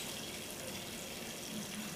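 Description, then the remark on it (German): A tap runs steadily, a continuous hissing splash of warm water pouring into a sink, even in level throughout, with no voices. The warm water is for making strudel dough. “ein Achtel Liter warmes Wasser, warm, das ist super für, für, für das Mehl, dann geht der Kleber gleich auf”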